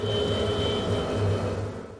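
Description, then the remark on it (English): A distant, low, muted buzzing hum like a great swarm of bees drones steadily without voices. Its thick rumbling tone holds for about two seconds before easing slightly at the end. “A buzzing, a distant, muted hum, like a great swarm of bees.”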